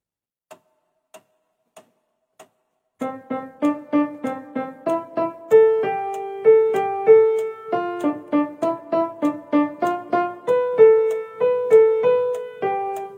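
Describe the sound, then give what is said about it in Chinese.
Four sharp metronome clicks at a tempo of 100 count in, then a piano plays a Hanon exercise: a brisk, even run of rapidly alternating adjacent notes that climb and fall in a steady rhythm, like a finger exercise, with no talking. “嗯，按照节奏给大家弹一下，听一下啊。我们用一个一百的速度。”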